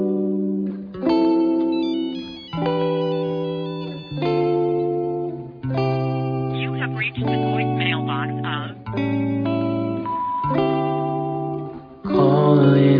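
A pop song plays at steady, full volume, with a sung melody carried over sustained, layered chords that shift every couple of seconds, the voice occasionally wavering with vibrato.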